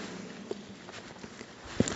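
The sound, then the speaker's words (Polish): Footsteps walk at a steady pace through a dark corridor of a complex, about five soft steps on a hard floor, slightly echoey, with a faint hiss in the background and no voices. “Dobra, to mieliśmy 50 kroków. Liczę dalej.”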